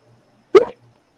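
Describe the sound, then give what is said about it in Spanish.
A single short, sharp sneeze bursts out, loud and abrupt, with quiet surrounding it and no one talking. “Salud.”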